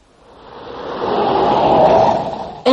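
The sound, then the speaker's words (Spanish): A car's engine and road noise swell and hold steady, then end in a sharp click as the car stops and a door opens for a woman who waved from the sidewalk. No voices are heard. “El coche se detuvo, и la mujer se inclinó hacia la puerta que se abría.”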